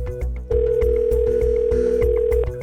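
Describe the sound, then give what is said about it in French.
A telephone handset in a bedroom is lifted to call the Texas justice department, then a steady, loud dial tone hums for about two seconds before cutting off, with a thumping rhythmic music beat pulsing underneath. “Il décroche le téléphone de sa chambre et appelle le département de la justice du Texas.”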